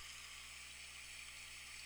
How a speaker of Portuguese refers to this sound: E com esse barulho de água só faz lembrar, como se fosse um curso d'água transparente, relaxante